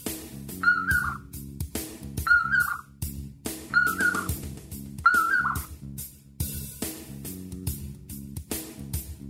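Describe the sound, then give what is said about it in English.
A common poorwill calls four times in a steady rhythm, each short whistled phrase rising and dipping, heard over a dense, rumbling background bed. “whatever terrible sound the nightjar makes, the common poorwill. That's a strange bird.”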